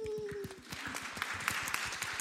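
Audience applause: a dense, steady patter of many hands clapping at a lively, even pace, with a brief tonal hum fading out at the start.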